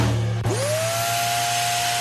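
A new robot vacuum cleaner's motor spins up with a rising whine, then settles into a steady, continuous hum with a bright whirring tone and broad hiss as it cleans the house. No one speaks.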